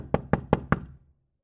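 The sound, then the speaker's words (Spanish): Four firm knocks on a wooden door in a steady, even rhythm, clear, followed by quiet with no voices. “Pasado un rato, sonó la puerta.”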